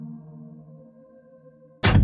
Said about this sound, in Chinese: 在我家楼下的某个地方，一扇门砰的一声关上了。